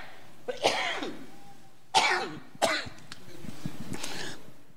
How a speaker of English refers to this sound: excuse me when I cough is because of a double pneumonia surgery. I had two lung surgeries, and the scar tissues caused me to cough. But I'm not sick.